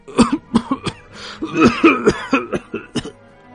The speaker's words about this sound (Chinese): 说到这儿，老人忽然剧烈的咳嗽起来，整个上半身耸动着，痰卡在喉咙深处，呼噜作响。